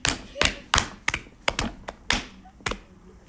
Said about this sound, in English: You know what? I just mm. want to clap because that was amazing.